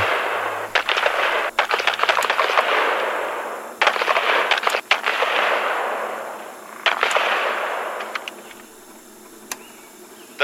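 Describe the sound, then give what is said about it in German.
Rapid, irregular bursts of gunfire on a tape recording, many sharp cracks clustered together like an ongoing firefight, set against a rushing, hissing background that swells and fades, with no voices. “Auf dem Tonband sind Schüsse und Schreien der Agenten zu hören.”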